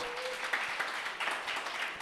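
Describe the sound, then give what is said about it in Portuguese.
A church audience breaks into sustained applause for God, a dense wash of many hands clapping at a steady, fairly loud level with no voices on top. “Você pode aplaudir a esse Deus?”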